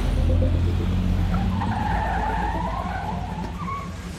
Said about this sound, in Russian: Из тумана на всех парах вылетел желтый ЛиАЗ Альвареса и, лихо затормозив юзом, остановился прямо у их ног.